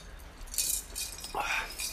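Glasses clink together in a toast, a couple of bright ringing taps, with a short sliding chime near the end; quiet room tone underneath and no talking.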